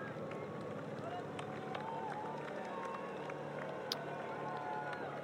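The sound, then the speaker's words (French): A steady motorcycle engine roar from the RMC press motorbike at a cycling race with the peloton, blended with rushing wind noise throughout, with a faint crowd murmur and indistinct voices underneath. “on entend la moto”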